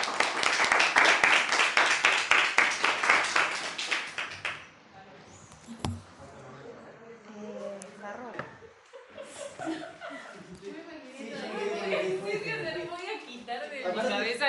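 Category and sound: crowd, applause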